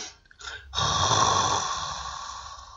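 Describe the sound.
A person imitates snoring with their voice, portraying the story character João snoring again: two short breathy puffs, then one long, loud, raspy drawn-out snore that slowly fades, with no speech.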